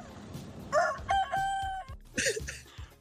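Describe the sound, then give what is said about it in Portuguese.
A rooster crows loudly, a strained, harmonic call rising and holding before breaking off, followed by a second shorter burst of crowing. “sendo, de fato, o galo presente na referida comunicação.”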